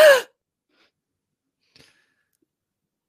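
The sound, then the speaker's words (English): A person imitates a single sharp, startled gasp, the gasp Ed gives as he opens his eyes in a scene of Our Flag Means Death: a quick, breathy intake of air right at the start, followed by near silence with one faint tick. “On the revenge, Ed opens his eyes and gasps.”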